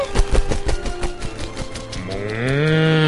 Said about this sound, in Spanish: allá va otra vaca morada. Hay que vacunarla para que vuelva a ser una persona normal.